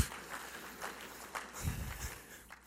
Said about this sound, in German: aber gleich einen herzlichen Applaus.